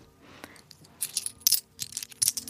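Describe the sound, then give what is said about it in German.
Cash coins clink and jingle in several bright, metallic bursts, as if handled or dropped together, with faint rustling between them and no talking. “Bargeld.”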